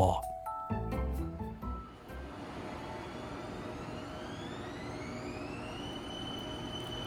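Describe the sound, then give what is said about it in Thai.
A train pulls away from a station toward the next station, its steady rumble filling the space while an electric motor whine climbs in pitch as it picks up speed, following a short burst of clattering at the start. “ผมโบกมือลาไหวๆขณะที่รถไฟพาเธอไปสู่สถานีถัดไป”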